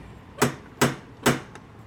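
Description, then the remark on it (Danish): Three sharp, evenly spaced metallic knocks from a door knocker on a closed door, each a bright hard strike with a brief ring, followed by a much fainter fourth tap. No one speaks. “Øh, der er en lukket dør, og der er en dørhammer. Jeg banker.”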